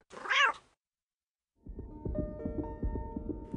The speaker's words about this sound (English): Hey, uh, where'd all these cats come from?